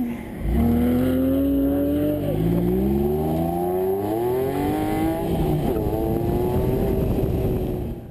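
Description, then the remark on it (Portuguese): A Porsche sports car engine, owned by dentist Luís Teixeira, revs and accelerates through rising gear changes, loud, its pitch climbing repeatedly in a steady powerful roar for several seconds with no voices. “Nos tempos livres, Luís Teixeira alvia o stress da medicina dentária no seu Porsche.”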